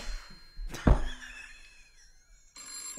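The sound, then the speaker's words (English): An old rotary telephone bell rings in short metallic bursts, with a heavy clunk early on, a lingering shimmer as it fades, then another ring near the end. No one speaks. “One of those old rotary phones.”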